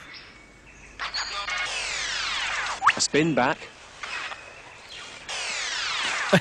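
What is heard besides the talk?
lyrebird song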